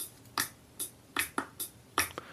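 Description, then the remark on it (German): A series of crisp finger snaps, about six of them, added as an example of rhythm over a steady tempo, with sharp bright attacks spaced at a steady, slightly uneven rhythm over a quiet background. No one speaks. “Und dann käme eben zum Beispiel sowas wie Klatschen dazu oder Schnippen”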